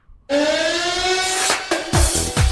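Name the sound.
siren sound effect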